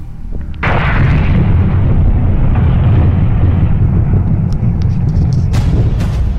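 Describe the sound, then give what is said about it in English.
A Taurid fireball explodes over Japan in 2020: a sudden deep blast like a bomb going off, followed by a long, heavy rumbling roar that stays loud and low-pitched for several seconds, with a few faint crackles near the end. “In 2020, a Taurid fireball exploded over Japan that sounded like a bomb going off.”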